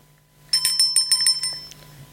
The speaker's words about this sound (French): Quand tu entendras la cloche sonner, tourne la page.